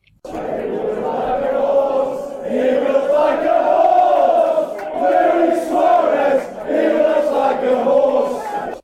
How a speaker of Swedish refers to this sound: Eh, men det är inte bara snälla saker såklart som de säger där, eh, de trevliga gentlemännen. Fråga bara Luis Suarez som ofta får höra denna ramsa från just Stoke-fans.